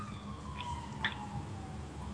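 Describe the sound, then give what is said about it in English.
A faint emergency siren wails outside, its steady tone drifting slowly in pitch beneath low background hum, with no one speaking. “there's a siren outside.”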